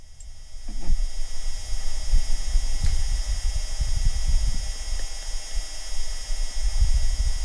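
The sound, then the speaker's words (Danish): Wind on Mars buffets a rover's microphone in a steady, low rumble with irregular gusty throbs, continuing for several seconds over faint static hiss, with no voices. “Altså, der er noget vind i en mikrofon?”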